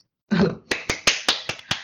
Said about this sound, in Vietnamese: trời ơi vỗ tay ra được bây giờ, không bây giờ tao phải vỗ tay bây giờ mình vỗ tay đi mày